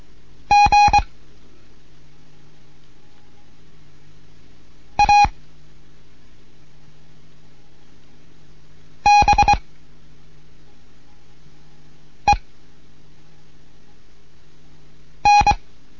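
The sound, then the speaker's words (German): Morse code beeps from a Morse code lesson, spelling words of different lengths in short bursts of a single steady mid-high tone, grouped into five clusters of varying length separated by pauses of a few seconds, over a faint low hum. “mit einem Morseunterricht. Und jetzt kommen Worte verschiedener Länge.”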